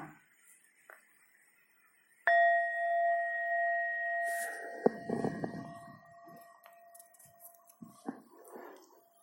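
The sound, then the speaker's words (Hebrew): A meditation gong is struck once, clear, its bright shimmering tone ringing on for several seconds as it slowly fades, with some faint rustling and shuffling noises beneath the decay. “וכשאעשה גונג נוסף, אנחנו שוב נעצום את העיניים ונתבונן פנימה בתוכנו.”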